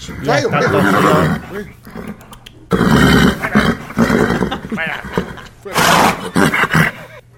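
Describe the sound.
A voice loudly imitates a horse's neigh, a wavering, harmonic whinny followed by several more rough, roaring bursts, with people talking around it.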